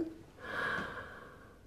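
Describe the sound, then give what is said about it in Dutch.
A single deep inhale during a short breathing exercise, drawn in sharply through the mouth and swelling over about a second before tapering off, fairly quiet with no talking. “En dan haal je adem.”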